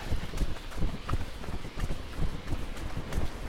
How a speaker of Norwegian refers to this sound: Nå springer vi jo bare asfalt her i dag.